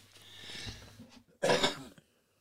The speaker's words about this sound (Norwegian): Hosta litt innimellom her.